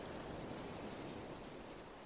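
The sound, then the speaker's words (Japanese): A steady, dense roar of ocean waves surging without pause, a broad rushing wash of surf that stays loud and even for the whole stretch, with no voices. “目をつぶっているのか開けているのかわからない闇の中で僕らは波の怒りを聞いていた”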